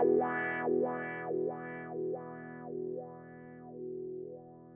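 A sustained, distorted guitar tone runs through a wah-wah pedal, sweeping its bright filter up and down about six times in a steady rhythm that gradually slows and softens.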